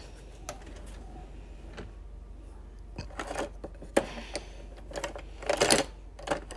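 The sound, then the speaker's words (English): Clattering and clinking of kitchen items as someone rummages for a little bowl and measuring spoons while making a baking-soda glow mask, with a run of sharp knocks and rattles, some louder bursts near the end, with no one speaking. “So I'm gonna add probably three get a little bowl and my measuring cups or measuring spoons rather.”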